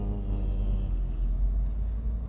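Steady low rumble of a moving car's interior, a constant engine and road drone filling the space with faint higher hiss above it, no voices, holding even throughout.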